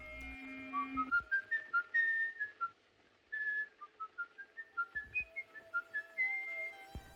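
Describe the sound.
Someone whistles a clear, brisk classical tune, In the Hall of the Mountain King, a run of short rising and falling notes with a couple of brief pauses, as a serial killer does in a film.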